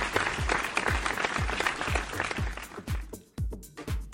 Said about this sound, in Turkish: Bravo. Alkışlar sana. Sevgili eş.